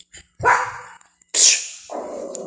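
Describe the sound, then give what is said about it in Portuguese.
A female dog barks loudly, two sharp, forceful barks about a second apart, followed by a lower, rougher sound trailing off at the end. “Gente, a cachorra. A cachorra enlouqueceu.”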